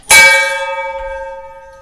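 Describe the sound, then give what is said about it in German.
A single bright bell strike, rung to announce a new category, rings out loud, its clear metallic tone lingering and slowly fading over the next two seconds with no one speaking. “Dann läute die Glocke”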